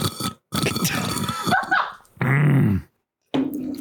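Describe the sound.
A person mimics a dog with a handful of rough, throaty barks and a longer growling yowl, loud, separated by brief silences.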